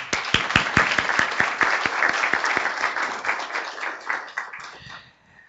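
A crowd applauds steadily, a dense wash of many hands clapping with a few sharp individual claps standing out early, then gradually thinning and fading out near the end.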